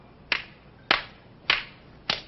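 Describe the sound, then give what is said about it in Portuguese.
Four slow, evenly spaced hand claps ring out one after another, sharp and moderately loud, with no voices. “Quer um pouquinho de aplauso?”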